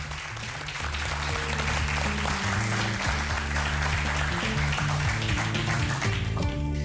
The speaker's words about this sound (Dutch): Een groot applaus voor de heer, uitspraak van de meester Frank Visser.